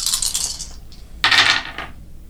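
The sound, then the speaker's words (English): Dice clatter across a hard tabletop in two quick bursts of bright, rattling clicks, fairly loud, with a brief pause between them and no voices, rolled for an untrained skill check plus one in a tabletop roleplaying game. “So it'll just be your dice plus uh, plus one.”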